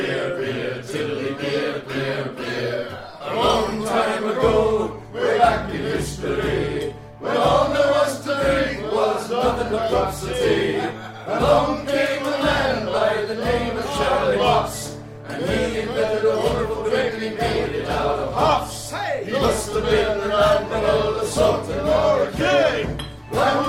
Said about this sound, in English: Egy ősi ír tengerész dal az, ami dicsőít egy Charlie Mops nevű fickót, aki állítólag a sör feltalálója.